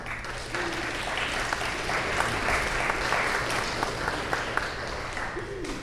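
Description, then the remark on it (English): An audience gives a steady round of applause for a choir after its performance, dense clapping that holds at an even, moderate level for several seconds without pause or spoken words. “a round of applause to everyone for that.”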